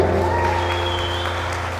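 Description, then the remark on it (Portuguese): An audience applauds the Lord steadily, a dense wash of many hands clapping at an even loudness, with a faint sustained musical tone and low hum underneath. “Diga assim comigo, aplauda o Senhor com alegria.”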